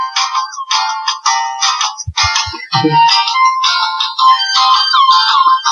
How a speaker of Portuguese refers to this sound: É impressionante como o YouTube tem vídeos de música de elevador